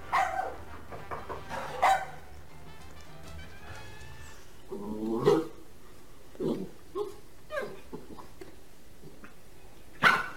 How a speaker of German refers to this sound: Ach du meine Güte, das ist einfach ein Hund.